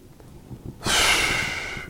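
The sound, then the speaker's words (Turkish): A single forceful puff of breath blown out, starting abruptly after a quiet moment and trailing off over about a second, with no talking. “gibi ses yapmak diye ses yapmak yani suni öksürük uf puflama gibi”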